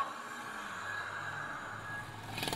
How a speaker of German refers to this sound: Auf einem dunklen Parkplatz bringt er das Auto zum Stehen.